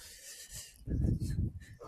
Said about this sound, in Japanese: むちゃくちゃいい感じのセミの鳴き声と、